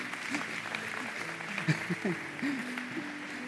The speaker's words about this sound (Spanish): Denle un aplauso a los solteros, vamos.